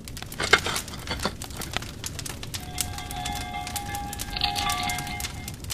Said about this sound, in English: What you're hearing now is the sounds of the replica furnace that the Corning glassmakers constructed according to ancient designs and materials.